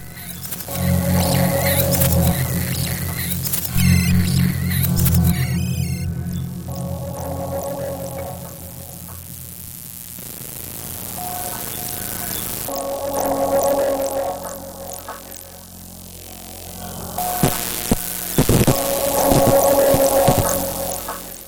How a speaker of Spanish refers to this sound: La obra que estamos escuchando, Passaic's Monumenter, de 1999, de Hans Hansen, fue escrita para el concurso de música electroacústica de la Danish Arts Foundation, Fundación de las Artes Danesas, en 1999